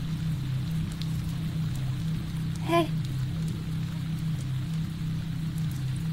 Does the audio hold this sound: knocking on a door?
no